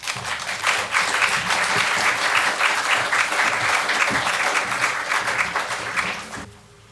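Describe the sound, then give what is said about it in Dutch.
An audience claps steadily for several seconds, a dense, even patter of applause that fades out near the end, as a speaker is given the floor at an evening talk and discussion. “Ik geef nu eerst het woord aan Frank van de Veren. Applaus.”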